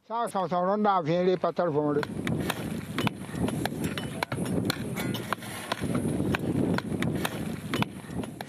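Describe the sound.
Repeated dull thuds of a farmer's hoe chopping dry soil at an uneven pace, making half-moon-shaped holes in the ground in Burkina Faso, with a wavering voice briefly at the start and a steady outdoor murmur underneath.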